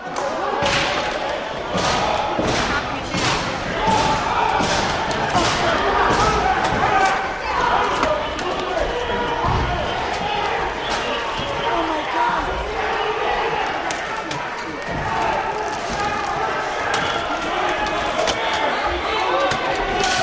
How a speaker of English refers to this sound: And when we were going uh, about exiting in an orderly fashion on what I, I would say is the uh, Republican side of the speaker's lobby, um, we could hear the pounding going on uh, on the speaker's lobby doors.